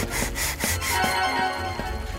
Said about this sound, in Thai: ทั้งคู่นำหม้อเข้าไปไว้ในบ้านและขัดจนแวววาว